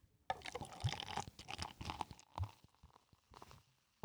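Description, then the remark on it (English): Old-fashioned cream soda is poured, a steady bubbling splash of liquid running for a few seconds before trickling off, with no talking over it. “The people, the people are going to need to hear this poured, right?”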